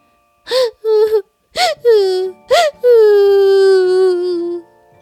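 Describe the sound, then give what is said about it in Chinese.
A voice crying in three sobbing bursts, each opening with a sharp breathy catch and sliding into a whimpering wail, the last stretched out long and slowly falling in pitch. “他顺着这个哭声。”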